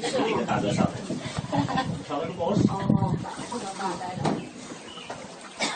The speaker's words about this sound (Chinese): 以下的这几十秒声音，就是从乌镇景区的门口到西栅的渡船上面的一段声响。你可以想象这是一幅怎么样欢乐的场景？人们来自于全国各地，有着不同的生活背景，但是此刻在同一艘船上，听着水声、鸟鸣，说着各自的事情。